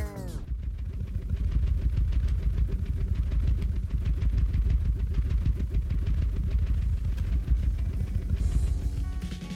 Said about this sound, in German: Den Sound dafür lieferte eine Lego-Platte. Direkt vor dem Mikrofon wurde die Lego-Platte in sehr schnelle Schwingungen gebracht und das klingt so.